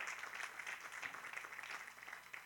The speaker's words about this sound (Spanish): Denle un aplauso al Señor en esta preciosa noche